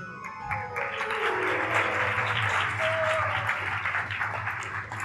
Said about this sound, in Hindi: ताली को जोर से इसलिए बजाई जा रही है कि अब आगे इस कथा से आगे बढ़ो समझता हूं मैं भी अच्छी तरह से